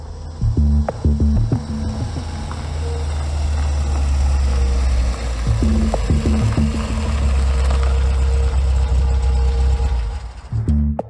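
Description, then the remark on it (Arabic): A car engine idles with a steady, low, throbbing rumble, joined by a few clunks and knocks near the start and again midway. No one speaks. “السيارة بيها شي؟ يبدو في مشكلة بدواليب يا شيخ خلني أتأكد”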